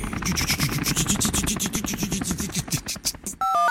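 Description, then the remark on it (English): A helicopter rotor sound effect for 'The Spy in the Sky' traffic report thumps in a fast, steady chopping rhythm with a broad whooshing roar, loud throughout, then cuts off abruptly to a brief electronic tone at the end. “Oh, the, the rotary of the helicopter sounded a bit dodgy then.”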